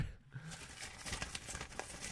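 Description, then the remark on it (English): Paper is unwrapped, crinkling and ripping in a steady stream of dry crackles and short tearing bursts, fairly quiet, with no voices. “Are you ripping off paper?”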